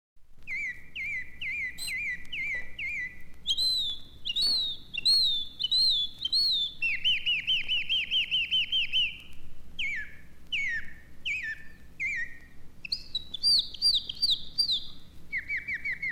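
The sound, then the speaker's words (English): Birds chirp and sing continuously, with bright repeated whistled phrases and trills shifting in pitch over a quiet low background hum. The calls are fairly loud, and no one speaks. “Oh my goodness, how I do love them birds.”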